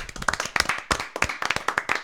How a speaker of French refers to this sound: Ah, on peut s'applaudir? on peut s'applaudir. je pense.